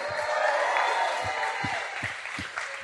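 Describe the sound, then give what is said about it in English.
An audience at Brooklyn Bowl claps for a DJ in a steady, dense round of applause that holds at an even level for a few seconds, with some cheering and crowd noise mixed into the clapping. “Y'all got to give a round of applause, another round of applause to DJ ….”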